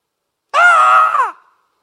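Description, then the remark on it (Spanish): A man lets out one loud, drawn-out shout of about a second, forceful, then it cuts off into silence. It sounds like a voice imitating a commanding yell. “cómo grita, Dios mío.”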